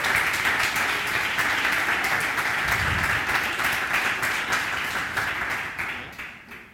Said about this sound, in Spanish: Han trabajado mucho en este vídeo, en esta presentación, así que démosles un fuerte aplauso en primer lugar a ellos.